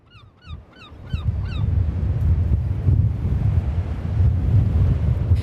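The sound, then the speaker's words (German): Strong wind buffets the microphone on an open beach by the sea at low tide, with the water far out. The wind is a loud, continuous low rumble with gusty swells. Early on, a few high bird calls chirp briefly in a quick repeating series before the wind takes over. “Das Wasser hat sich weit zurückgezogen, der Wind allerdings zerrt an unseren Kapuzen und Haaren.”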